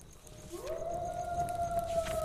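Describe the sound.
A single wolf howl swells upward, then holds a long, steady, mournful tone, fairly loud, with a faint background hiss and no talking.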